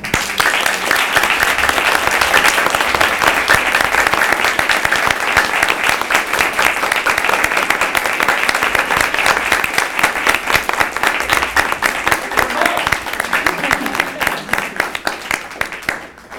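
An audience at a panel event breaks into sustained applause, a dense, steady wash of many hands clapping at once that holds loud for about sixteen seconds before beginning to thin out at the end.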